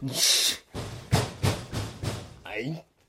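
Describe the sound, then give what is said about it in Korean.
A brief hiss, then about five firm, evenly spaced, loud knocks on the door of an empty shop at night, followed by a short murmur of a voice at the end. “이 밤중에 어떤 새끼가 남의 빈 가게 문을 두드리고 지랄이야?”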